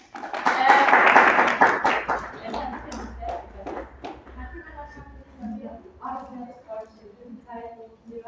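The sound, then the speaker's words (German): An audience breaks into loud applause for the translation, a dense burst of clapping for about two seconds that quickly thins out as a voice begins speaking over the fading claps. “Jetzt jemand von den Gästen auch sehr gutes Englisch, weil uns dann super Applaus auch für die Translation die ganze Zeit.”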